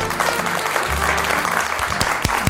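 Steady applause from a group, dense rapid clapping that fills the whole clip at an even, fairly loud level, with a few sharper individual claps standing out near the end.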